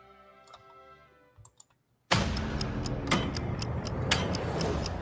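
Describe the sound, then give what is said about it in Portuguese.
A clock ticks in a teaser for Mortal Kombat 12 posted by Ed Boon, in sharp, clicking beats, first faint over a soft tonal hum, then continuing steadily beneath a sudden loud, rumbling wash of noise. No one speaks. “É, o, o, o, o senhor Ed Boon colocou um teaserzinho, né? Onde um relógio vai né?”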